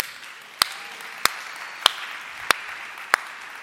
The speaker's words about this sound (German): Leute, es war doch super. Einen Applaus bitte.